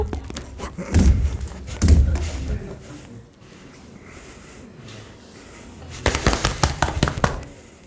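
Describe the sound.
Two heavy, booming thumps, then a quieter pause and a fast flurry of sharp, rapid hits, like someone mimicking a chimpanzee pounding the ground and beating its chest.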